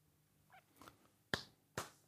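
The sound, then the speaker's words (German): A sharp hand clap cracks out, followed less than half a second later by another crisp smack, after a few faint soft taps in otherwise quiet surroundings with no voices; a reflexive clap in response to someone saying the show title Ted Lasso. “Hast du geklatscht?”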